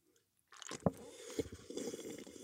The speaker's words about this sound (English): Let's sip tea together.